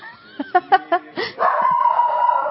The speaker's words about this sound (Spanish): Luna, perdonen que Luna se acaba de arrebatar. Tenemos perros en vivo aquí.